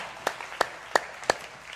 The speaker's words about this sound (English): And our, sorry our guys are right here. Let's give the Bulldogs a round of applause.